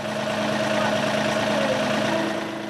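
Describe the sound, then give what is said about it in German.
The engine of a small green tractor chugs steadily at an idle-like pace as it drives along country roads pulling a trailer with guests, a constant hum with a low mechanical drone and no voices over it. “Geruhsam tuckert dann der kleine grüne Traktor über die Landstraßen.”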